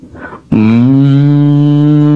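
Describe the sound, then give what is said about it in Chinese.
An old yellow cow grazing in a grassy field lets out one long, loud, low-pitched moo after a brief quiet rustle. The drawn-out call holds steady and unbroken to the end. “嗯，这是老牛叫唤呢。”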